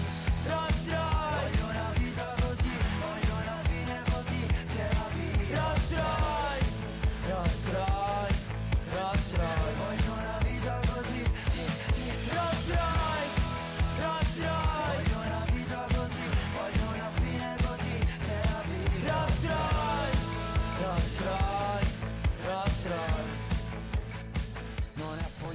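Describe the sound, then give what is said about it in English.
A loud, busy pop track plays continuously, a male singer with a tattooed face belting and shouting the lyrics over a driving, steady beat and dense instrumentation, with no one talking over it; the song is an entry in the Sanremo competition. “He was there with a tattooed face, um, but he was basically just screaming ….”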